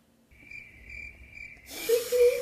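A cricket trills steadily at a high pitch with a faint pulsing rhythm. Partway through, a loud hiss of noise and a brief whistling tone wash over it.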